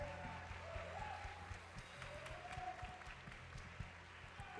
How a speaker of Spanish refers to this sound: Si usted sabe que va directo a la presencia de Dios cantándole santo, denle más fuerte ese aplauso al rey.